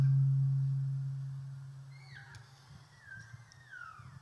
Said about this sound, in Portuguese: Eu acho que tem que abaixar um pouquinho para não dar microfonia